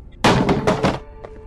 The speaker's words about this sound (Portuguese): você vai até a porta. E o que você faz dela? Eu lhe meto um murro.